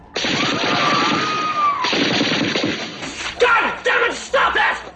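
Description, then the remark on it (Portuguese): A voice imitates a bomb explosion, as done by the character Jones in the film Police Academy: a loud, rough, hissing roar that holds for nearly two seconds, followed by several shorter, choppy bursts of mouth-made blast noise. “Vai aparecer o Jones fazendo, imitando qualquer coisa. cara, Fazendo o barulho da bomba.”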